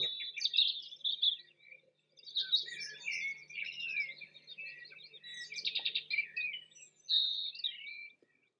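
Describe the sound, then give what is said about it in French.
A dawn chorus of songbirds around 5 a.m. in a house garden, several birds singing at once with overlapping trills, whistles and chirps, steady and continuous with brief pauses, clear with no talking. “Alors, à cette époque, vers 5 heures du matin, commence un véritable concert de la nature, le refrain de l'aube.”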